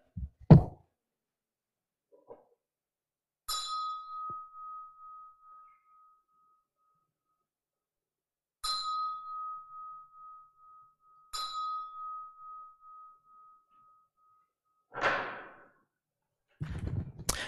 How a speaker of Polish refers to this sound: No i teraz możemy zobaczyć, co ten program zobaczy, gdy ja w ten dzwon uderzę.